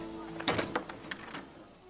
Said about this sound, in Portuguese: Essa figura ela se aproxima e abre a porta.